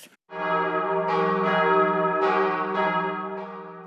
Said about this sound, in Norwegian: Kirkeklokker ringer inn til gudstjeneste i Nidarosdomen i Trondheim.